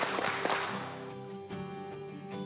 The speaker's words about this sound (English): Three claps. We're ready tonight. Three claps. Three claps. Three claps.